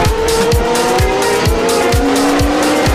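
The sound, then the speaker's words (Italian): A loud race car engine screams as it revs hard, its pitch climbing and stepping through quick gear changes as the gears engage, with a steady rhythmic pulsing underneath and no voices. “Senti, senti le marce come entrano.”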